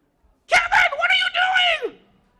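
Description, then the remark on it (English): A person imitates a high-pitched, mouse-like scream: one shrill, squeaky shriek lasting over a second, loud, wavering slightly before dropping off abruptly. “I heard Mean Jean scream, but it was one of those high pierced screams like a mouse would do”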